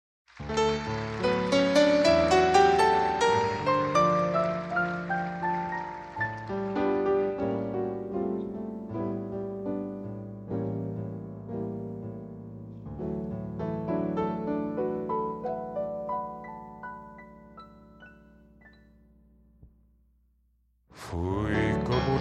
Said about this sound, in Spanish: Pero vamos a escuchar nuestro primer tango.